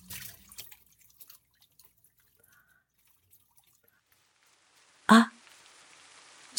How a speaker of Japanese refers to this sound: 外は今日は雨です。